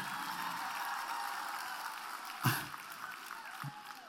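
A steady wash of applause from women in the audience, dense and crackling, with a sharper clap or thump standing out about midway. Nobody speaks over it.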